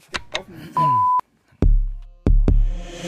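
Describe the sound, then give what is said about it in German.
A single short electronic beep, a steady mid-pitched tone lasting about half a second, sounds loud, followed by two heavy booming thuds. “Kleiner Alarm mal vorne dran.”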